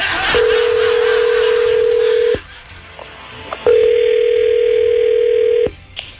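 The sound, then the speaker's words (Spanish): After a number is dialed for an outgoing call, a telephone ringing tone sounds twice. Each is a steady, loud, two-second hum with a short quiet pause between, like a call ringing through on the line. No one speaks. “Vamos a marcar.”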